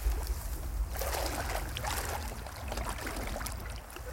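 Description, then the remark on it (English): Steady sloshing and splashing of water as people jump and wade into a river, with a low rumble of the current and brief bursts of louder splashes; no one speaks. “So we'll jump in the river now.”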